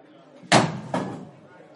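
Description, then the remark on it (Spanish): Two heavy thuds land about half a second apart as a superintendent slams his fists down onto a wooden desk and jumps up from his chair, each with a short ringing decay over faint room noise. “El superintendente Jiménez golpeó los puños contra el escritorio y se levantó de un salto de su silla.”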